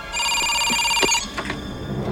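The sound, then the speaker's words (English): A telephone rings with a steady, bright electronic trill for about a second, then cuts off, leaving faint room noise and a few soft clicks. Fairly loud, with no talking. “He gets a phone call.”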